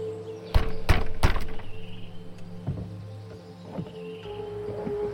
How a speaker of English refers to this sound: Reassured the branches and tether would hold it long enough, he walked back toward the door of his home and banged his fist upon the wood.